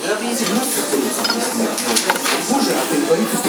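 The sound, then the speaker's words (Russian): Dishes and spoons clink steadily in a busy cafe as people eat with spoons at a row of tables, with scattered bright taps of cutlery on crockery over a low murmur of indistinct voices in the background. “И понимаю, в принципе, по звуку посуды, что люди кушают ну, ложечками.”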